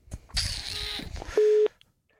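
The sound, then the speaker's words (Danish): A burst of hissy line noise gives way to a single loud, steady telephone tone lasting about a third of a second, like a call ringing through on the other end, as a call to a guest is placed from a studio. “Øh, og lad os lige se, om vi kan få ham med op på, til, på den her telefon, fordi nu står jeg jo her lidt alene i studiet.”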